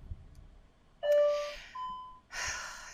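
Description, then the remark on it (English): A home door chime, set off when the house door is opened, sounds two short electronic tones, a lower one then a higher one, mixed with breathy, hissing bursts, with no talking. “When you go open the door and out, it's it's it's it's from my my uh my doors.”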